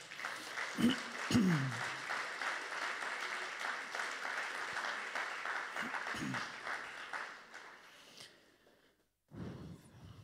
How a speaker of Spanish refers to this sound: Amén y amén. Dele un aplauso a Dios.